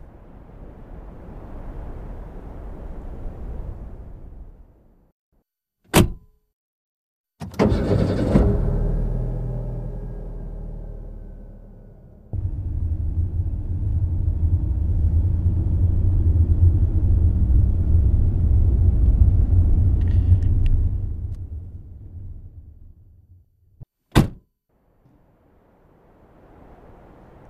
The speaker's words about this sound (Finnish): Täältä saaresta tuonne Mantereen puolelle Oulu on matkaa semmoinen puolisen tuntia ja normaalisti tätä ryskätään lautalla, lautalla maan aikaan, mutta nyt on tämä jäätie käytössä ja tätä pitkin pystytään huruuttelemaan.